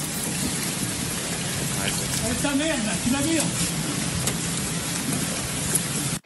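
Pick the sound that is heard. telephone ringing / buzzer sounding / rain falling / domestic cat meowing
rain falling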